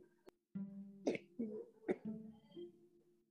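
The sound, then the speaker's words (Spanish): An elderly woman with a cough that brings up secretions coughs: two harsh, raspy bursts, each followed by strained, throaty voicing, with no one speaking over them. “¿Sigue con tos? Sí.”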